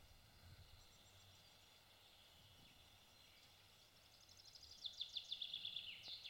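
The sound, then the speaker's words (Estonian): Birdsong rises over a quiet outdoor hush, starting as faint high chirps and ending in a brighter, rapid trill of repeated notes from a bird. “no selge, linnulaulust edasi siis”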